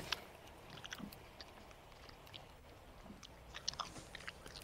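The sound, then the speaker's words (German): Gum being chewed with soft, wet smacking and clicking sounds in an irregular rhythm, fairly quiet, with no one talking. “Hört ihr mein Kaugummi?”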